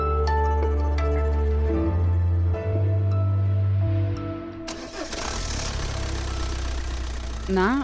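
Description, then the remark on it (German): A diesel engine runs with a deep, steady low drone and strong humming tones, then turns into a louder, rougher clattering roar with a harsh rattle for the remaining seconds. “Sie hörten soeben einen Dieselmotor.”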